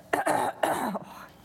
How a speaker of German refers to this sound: Mal gucken, wie lange ich noch mich heute räuspern muss